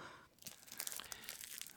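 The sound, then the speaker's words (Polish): Dense crinkling and crackling of thin aluminium foil being crushed and folded into a foil hat, a steady stream of sharp rustles with no talking over it. “właśnie składam sobie foliową czapeczkę, bo jak tylko przerwę transmisję Radia Kubańskiego przez moje plomby, to będziemy Was nawiedzać.”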